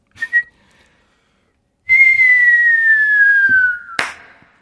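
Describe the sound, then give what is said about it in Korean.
A person imitates a firework: a short chirp, then a long, steadily falling whistle lasting about two seconds, ending in a sharp popping burst that quickly fades. “아, 자, 불꽃놀이 갑니다.”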